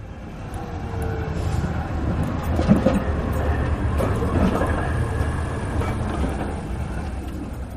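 A steady rumble of a tram rolling along its rails, with a faint whine and some clanking swelling in the middle, continuous for the whole stretch and with no one talking.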